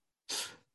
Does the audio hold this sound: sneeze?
yes